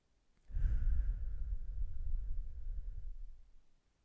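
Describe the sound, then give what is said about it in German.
One long, slow, deliberate breath, fairly loud, rushing steadily for about three seconds before fading out, as part of a box breathing demonstration of inhaling, holding and exhaling. No talking. “ich schicke dir ein Video von mir, wie ich Box Breathing mache”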